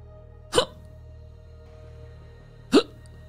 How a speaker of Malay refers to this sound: aku terdengar macam ada orang terseduh.